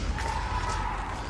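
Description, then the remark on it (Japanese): A group of voices shouts together in unison, a sustained, muffled cry from inside a gymnasium with its windows left open, apparently kendo practice, carrying across the large echoing gym, fairly faint and heard over a steady background hum. “体育館の2階の方に上がると剣道とかやってんだったかなこの辺はちょっとなんか、はい、皆さん一斉に叫んだりした声が入ってますねどうも剣道っぽいですね”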